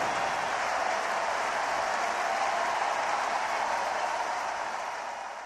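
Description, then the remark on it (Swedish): A large baseball stadium crowd cheers and applauds in a steady, dense roar of clapping and shouting after visiting player Albert hits a home run deep to left in the seventh inning of game two, with the Cardinals leading 4-0, holding strong throughout before easing slightly at the end. “Det är ju inte direkt varje match som vi får se en bortaspelare få jubel och applåder efter en homerun och eh, det var inte direkt så att matchen var helt avgjord här heller.”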